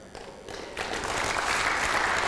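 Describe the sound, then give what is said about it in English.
An audience bursts into applause during a Christian sermon, answering a call to cheer for the God who saves people from death, the clapping building quickly from a few hands into a dense, steady wash of sound that keeps going. “Let's hear it for the God who saves people from death.”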